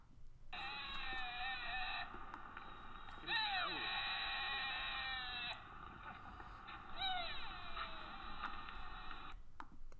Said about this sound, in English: It's it's a stag, and uh, I've never really heard them before. But um, I I was looking for a recording in YouTube